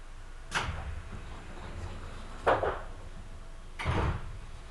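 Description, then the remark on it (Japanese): Train doors sliding shut in three distinct whooshing thuds, spaced about two seconds apart, over a steady low mechanical rumble, on a train whose next station is Agano, with no talking. “ドアが閉まります。ご注意ください。”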